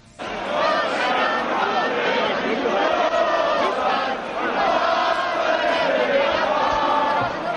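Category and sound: crowd, protest crowd chanting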